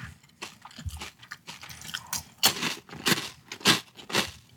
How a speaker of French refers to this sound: Est-ce que c'est désagréable de manger un grissini